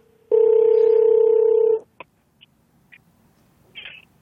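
A single long, steady ringback tone of an outgoing phone call placed during a radio show rings for about a second and a half, then cuts off, followed by a few faint clicks and a brief chirpy noise.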